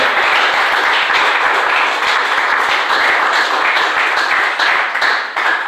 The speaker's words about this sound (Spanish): Denle un aplauso a Jesús esta mañana, por favor.